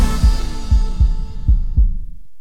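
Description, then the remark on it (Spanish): A deep, booming heartbeat sound effect in a Banco BHD advertisement for the Dominican team at the World Baseball Classic thuds in steady paired beats, five strong low thumps over a humming, droning backdrop that fades away at the end. No voices. “un solo latido que se escucha en todo el mundo.”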